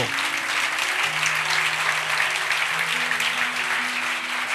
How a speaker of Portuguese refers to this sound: Aplauda Jesus por isso.